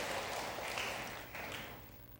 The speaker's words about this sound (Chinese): 哈利路亚。再次拍手，荣耀归给上帝。阿门。